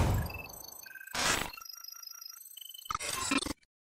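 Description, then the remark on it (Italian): A short electronic jingle with bright, chiming tones and quick bursts of whooshing noise, lasting a few seconds before cutting off abruptly into silence. No one speaks. “Adesso volevo mandarti transizione. Manda eh, pure la transizione.”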